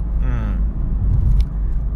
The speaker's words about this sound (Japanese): それに比べてこのポッドキャストってなんか1個僕の中で車の中の時間を有効活用しようっていうのがあるので基本的に車の中で喋ってるんですね